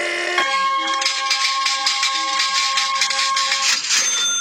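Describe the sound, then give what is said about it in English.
A cash register rings out with a sustained, bright metallic chime layered over rapid mechanical clattering, loud and continuous for a few seconds with no voices. “And that was the cash register.”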